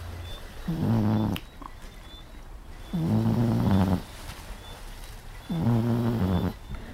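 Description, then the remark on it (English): A cat snoring beside a person, three slow, rhythmic rasping breaths about two seconds apart, each a low, buzzing purr-like rumble, with quiet pauses between and no talking. “That was the sound of um, my cat Sachi, who is uh, our third co-host, snoring beside me.”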